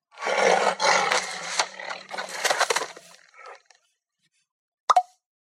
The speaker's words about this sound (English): The tiger muffled roar rumbles from inside the microwave.